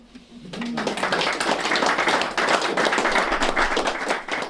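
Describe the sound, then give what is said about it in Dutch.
A small crowd claps steadily for several seconds after a live acoustic performance by a singer and guitarist duo, dense overlapping hand claps rising quickly and holding at a fairly loud level, with no talking over it. “Applaus voor het duo … voor zanger … en gitarist …”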